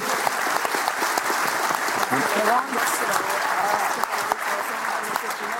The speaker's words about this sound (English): All right, everyone, round of applause for everybody.